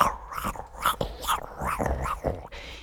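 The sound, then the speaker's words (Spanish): Someone imitates teeth grinding (bruxism) with their voice, a gritty rasping that comes in rapid uneven bursts, almost like a low growl, with no talking around it, mimicking people grinding their jaws in bed at night. “A ver, es que la mandíbula está hecha para matar, o sea, para defendernos, para rasgar, y estamos ahí con ese bruxismo que, que, que yo a veces me estoy despierta por la noche y, pienso, joder, la de personas que hay en su cama haciendo...”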